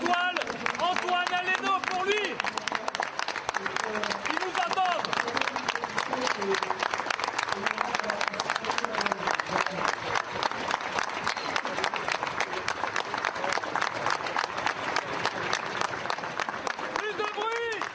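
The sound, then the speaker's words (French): A crowd of culinary professionals at the Taste of Paris gastronomy festival applauds steadily for one minute in tribute to a chef, dense clapping filling the whole stretch at a constant loudness, with a few voices briefly audible at the start. “Pendant une minute, on va applaudir”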